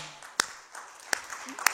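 A few scattered, sharp claps, three crisp isolated hits at an uneven pace, rather than full applause, over a quiet, low background hum, as the audience claps for the Well turning 10 years old.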